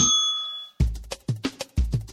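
A desk bell kept on a table rings once with a bright metallic tone that fades out, followed by several loud, low, thumping bursts in an uneven rhythm.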